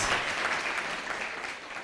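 A steady wash of audience applause, many hands clapping densely and evenly at a moderate level, with no clear individual claps standing out and no talking over it.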